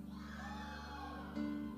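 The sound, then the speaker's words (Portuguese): A group of teenagers seated upstairs shouts and whoops together when called on to shout during a prayer gathering, in one sustained, overlapping cheer that swells briefly louder near the end, with no separate talking. “Onde estão os adolescentes? Lá em cima tem um bocado, olha. Grita aí os de cima.”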